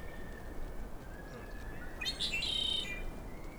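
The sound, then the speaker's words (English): A single red-winged blackbird song rings out clearly for about a second, a short burst of notes ending in a high buzzy trill, over steady outdoor background hiss with a faint high whine throughout. The bird shows red on its wings and is perched with Half Dome behind it. “It's, it we, looks like a red winged blackbird.”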